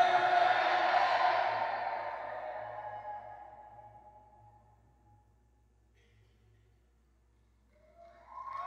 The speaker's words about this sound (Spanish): Hasta los aviones están pasando. ¿Escuchan los aviones?